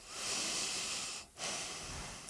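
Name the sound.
heavy breathing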